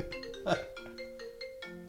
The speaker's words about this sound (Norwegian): ringer telefonen.